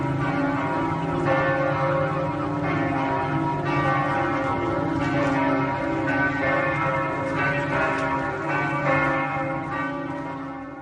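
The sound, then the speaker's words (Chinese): A church bell in a Catholic region chimes the time in a steady series of strikes, as it does every fifteen minutes, each ringing tone overlapping the last in a rich, sustained hum. The ringing stays fairly loud throughout, with no voices. “在天主教地区，我会听见每十五分钟一次的教堂准确的报时的声音。”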